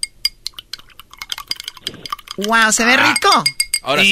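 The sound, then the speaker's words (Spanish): A flurry of small, bright clinks as ice cubes drop rapidly into a copper cup of ginger drink with Gran Centenario tequila, with a metallic ring; then a man starts talking over the end. “Y espérate, güey, eh, échale el, el, cuadro, es el hielito.”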